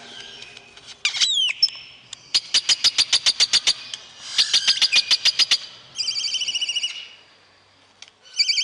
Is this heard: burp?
no